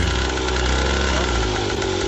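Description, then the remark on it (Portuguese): A moped's two-stroke engine idles in street traffic in São Mateus, a loud, steady buzzing rattle that runs without a break for the whole couple of seconds. “Esse é o som de uma mobilete.”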